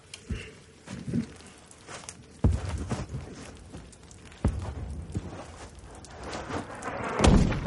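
Heavy muffled booms from explosions outside strike about three times, each followed by rumbling and scattered trickling of falling rubble and dirt as small collapses occur inside a caponier tunnel, with smaller thuds and crumbling in between. No one speaks.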